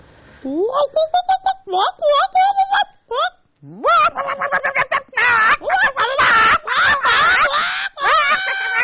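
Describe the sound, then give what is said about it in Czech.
Human voices imitate an excited hen, with rapid, staccato clucks and squawking rises, loud, overlapping in a busy, almost continuous burst of mock chicken noise. “Dokázali byste napodobit zvuk, který dělá rozparáděná slepice?”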